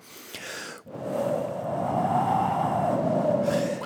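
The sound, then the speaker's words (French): A voice imitates blowing wind as a sound effect with a sustained breathy whoosh lasting about three seconds, swelling slightly and holding steady after a brief opening breath, fairly loud with no words. “Je dis, bon, je dois, je dois faire euh, le vent, par exemple.”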